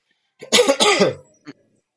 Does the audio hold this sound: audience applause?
no